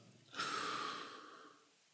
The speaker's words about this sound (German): Und was wäre so, so eine Anfängerübung? Atmen. Atmen mal einfach gleichmäßig zehn Minuten lang.